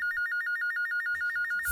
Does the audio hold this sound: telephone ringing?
yes